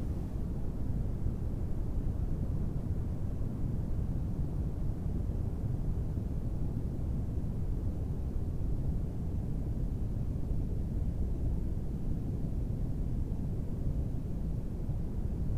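Steady brown noise playing as the background of a sleep meditation fills the whole stretch, a deep, even rumble weighted toward the low end with a soft hiss above, unchanging in level and free of any voices.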